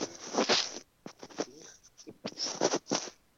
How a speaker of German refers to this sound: Ui, jetzt raschelt es ein bisschen. Ist jetzt besser?